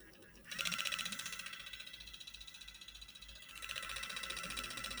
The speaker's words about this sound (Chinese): 它就是这个导头在反转震动的声音，它可以帮助我们肌肤运动。